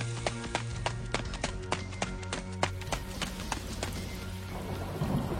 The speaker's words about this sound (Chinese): 外面下雨了，黑色的雨，雨点打在方墨的脸上。